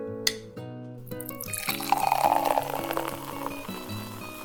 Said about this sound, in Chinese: 夏天的汽水气泡声是我最喜欢听的声音，它仿佛是整个夏天的救星，是快乐的主宰。